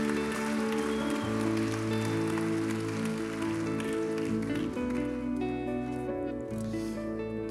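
A crowd applauds with dense, steady clapping that holds for several seconds, layered over sustained musical chords playing underneath.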